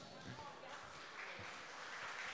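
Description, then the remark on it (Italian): An audience applauds steadily for the moderator of the event, a dense patter of many hands clapping at once that stays fairly even throughout, with a faint murmur of voices underneath. “Ma no, perché è giusto applaudire perché ci dai veramente una grossa mano, anche come sostegno, lo sai, ti vogliamo molto bene.”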